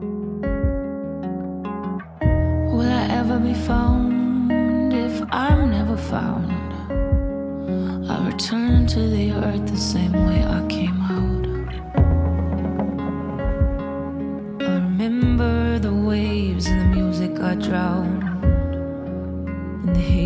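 A song plays steadily and fairly loud, with a sung vocal line over sustained instrumental chords and a regular low beat, continuing for the whole stretch after a brief quieter opening.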